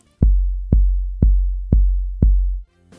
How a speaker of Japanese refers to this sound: そのコンプレッサーっていうのはねアタック以外の部分を圧縮することができるっていうことでねこれをね設定するとアタック感がね強調されるんですよそれをちょっとやってみた音を聞いてもらいましょうか